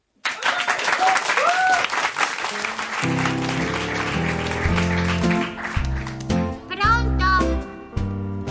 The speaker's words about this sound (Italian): Applauso.